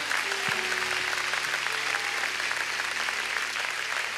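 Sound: audience applauding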